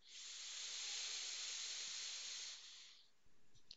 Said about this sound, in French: On inspire par le nez profondément